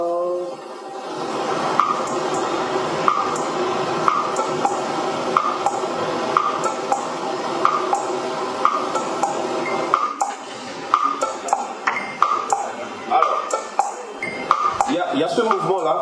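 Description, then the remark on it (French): Metallic gong strokes ring out at a steady, recurring pulse of traditional tchékoum over dense traditional ensemble music. They stay bright and prominent throughout, with the strikes coming quicker and less regular toward the end. “Et ce mouvement, lorsque vous écoutez la musique, euh, le tchékoum traditionnel, en réalité, c'est le gong qui fait ce son-là.”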